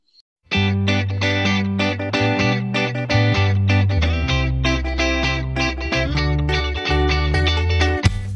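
An instrumental intro theme kicks in after a brief pause: loud, driving music with a steady rhythmic pulse, heavy bass and bright, effects-laden guitar-like chords, with no voices.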